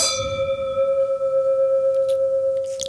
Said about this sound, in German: genau, Prost erstmal